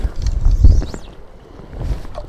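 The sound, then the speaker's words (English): Gusty wind buffets the microphone outdoors at a beach while someone is fishing and casting along the beach, with loud low rumbling bursts that swell, ease off, then surge again near the end. No one speaks. “on this podcast you will have quite a bit of noise from the wind”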